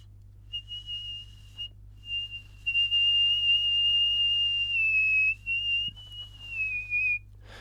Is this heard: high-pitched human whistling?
yes